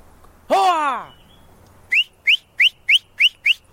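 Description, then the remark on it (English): A loud, drawn-out falling call is followed by six short, sharp rising whistles repeated in a quick, steady rhythm, clear against a quiet outdoor background: a three-man team shouting and whistling to drive a troop of baboons out of a village into a grove of pine trees. “By clapping, shouting, and whistling, this three man team begins to nudge the troop out of the village and into a grove of pine trees.”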